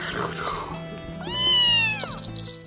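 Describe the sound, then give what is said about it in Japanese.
A single drawn-out, high-pitched cat meow rises and falls in the middle, loud, with low voices murmuring underneath and a faint background hum. “ごめんごめんごめんそんなに怒るなよ”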